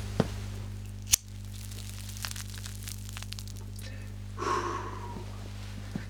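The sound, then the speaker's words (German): A lighter, empty for 20 years, is flicked to light a cigarette: two sharp clicks about a second apart, then a soft breathy hiss a few seconds later over a steady low hum, with no talking. “Also das einzige echte war das Feuerzeug.”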